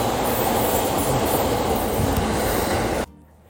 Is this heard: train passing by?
yes